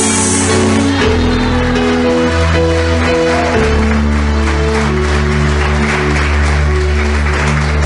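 An audience claps loudly and steadily for the Lord for several seconds, the applause blending with sustained keyboard or organ chords playing underneath.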